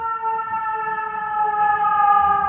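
An emergency vehicle siren, stopping outside a window and left on, holds a steady, sustained wail, its pitch drifting gently upward over a low rumble of traffic, fairly loud and continuous throughout.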